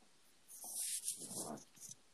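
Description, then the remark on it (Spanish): A person shifts position in a chair, producing a soft rustling and scraping that lasts just over a second before settling into quiet. No one speaks. “Suena raro porque me acomodé en la silla, ¿no?”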